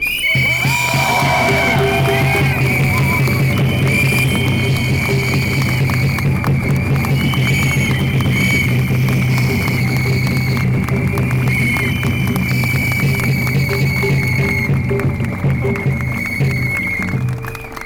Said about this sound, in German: In diesem Sinne bitte um einen Applaus dafür.